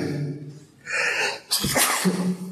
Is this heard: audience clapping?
no